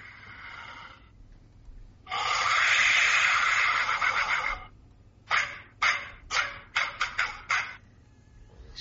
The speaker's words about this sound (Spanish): se ha grabado el sonido expulsado. Científicamente, aire a través de un objeto con forma de vasija votiva. Sí, esto dirían los arqueólogos, pero quizá esto sea lo que menos importe.